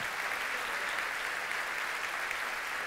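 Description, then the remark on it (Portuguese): A church audience applauds loudly to give glory to God. A dense, steady wash of many hands clapping together holds at an even level throughout, with no voices standing out. “Levante um aplauso bem forte e dê um glória a Deus.”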